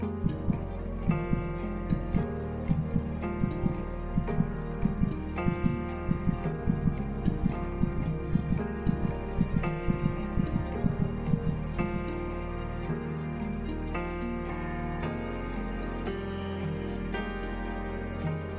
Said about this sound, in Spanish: Siente a tu bebé. Trata de percibir el latido de su corazón.